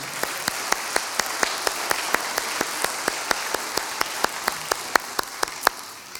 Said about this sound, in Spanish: Una vez más, un aplauso a, a las madres.